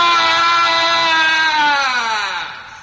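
A horrible scream in the dark: one long, loud, strained cry held for about three seconds, its pitch sagging slightly before it trails off at the end. No one speaks over it.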